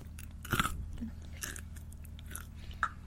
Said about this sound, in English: Even your chewing noises are quiet. You're like a rabbit.